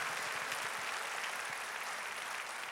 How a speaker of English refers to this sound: Clap your hands, believing God's gonna bring you out.